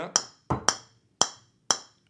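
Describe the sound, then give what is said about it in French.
Five sharp, bright taps of a ball against a new carbon golf club face, each a quick crisp click with a short ringing tail, spaced unevenly and heard on their own. “Donc ça, c'est la face en carbone.”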